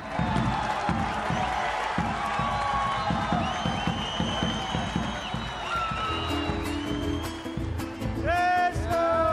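An audience applauds steadily for about nine seconds, dense clapping mixed with crowd noise, rising cheers and several shrill whistles near the end.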